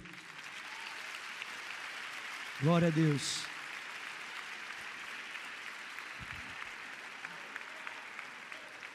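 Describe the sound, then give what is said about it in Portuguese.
An audience in an auditorium applauds steadily as people come forward to the front, a dense, even wash of clapping that runs the whole time while a man's voice briefly calls out over it partway through. “Pode vir, vem, vem, vamos aplaudir.”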